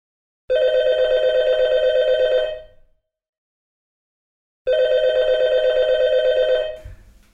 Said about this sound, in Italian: Ci arriva una chiamata.